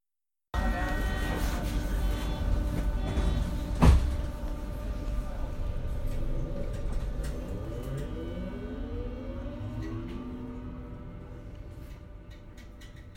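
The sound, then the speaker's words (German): A subway train rumbles steadily in a station, with a sharp metallic clunk early on, then rising and falling electric motor whine as it pulls away, fading slightly toward the end. “schau mal, da besprühen schon wieder zwei Leute die U-Bahn.”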